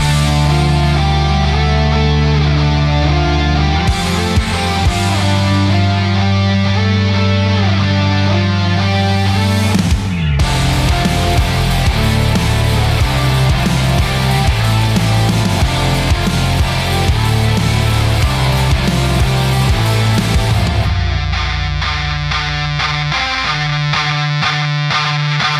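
A loud rock band song plays throughout, with heavily distorted guitars, steady drums and dense full-band instrumentation shifting through sections, no spoken voices over it.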